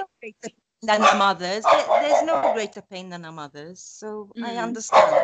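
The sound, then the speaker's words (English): A dog named Frankie barks in short, repeated bursts, mixed in with people talking over it. “i'm sorry about my dog don't worry about Frankie.”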